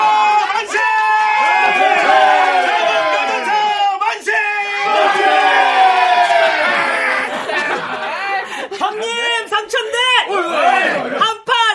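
A large group of people whoops, laughs and cheers together loudly for several seconds, with scattered clapping mixed into the continuous, excited crowd noise.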